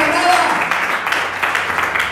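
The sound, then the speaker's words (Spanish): An audience at a church service applauds to thank the Lord: a steady, dense wash of many hands clapping for a couple of seconds, fairly loud, with a few voices calling out underneath. “Alguien dice amén a esto, alguien puede aplaudirle y gozarse y decir gracias Señor”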